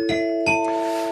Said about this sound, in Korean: 이젠 딩동댕 소리도 듣고 싶어요. 아, 그럼요. 딩동댕 드려야죠.